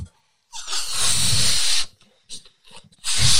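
Long, forceful breathy blowing bursts into the mic, a sustained push of air lasting over a second, a short pause with small sounds, then another strong blow, as someone inflates a fourth, very large-capacity balloon by mouth.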